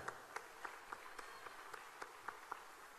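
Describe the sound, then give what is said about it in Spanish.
Audience applause for a band's accordion and guitar players at a show, fairly faint, with a steady hiss of many hands and a series of sharper claps standing out at an even, quick rhythm throughout. “Un aplauso Matalata.”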